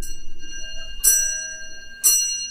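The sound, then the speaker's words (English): A clock chimes four o'clock with a series of clear, evenly spaced bell strikes about a second apart, each ringing out and sustaining before the next. Fairly loud, with no talking. “what time is it there? Four o'clock.”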